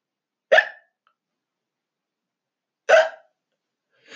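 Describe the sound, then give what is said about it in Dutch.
Two sharp hiccups about two and a half seconds apart from someone sitting at an airport baggage carousel, each a brief throaty gulp, with silence between them and the start of a third at the very end. “Net op het moment dat de band begon te lopen, kreeg ik de hik.”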